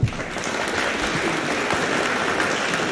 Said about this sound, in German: Achso, hier, Applaus.